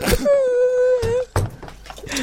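A voice puts on an exaggerated, dismayed fake cry: one drawn-out, high whining wail lasting about a second, then short breathy sobbing bursts, fairly loud.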